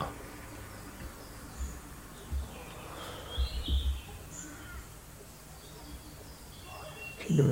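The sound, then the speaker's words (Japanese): Faint bird chirps, scattered short calls over a quiet outdoor hush, with a few low thumps and rustles. “ちょっとですね、フィルム、鳥の鳴き声とか聞こえますかねちょっと環境が変わったんで、微妙に聞こえ方が”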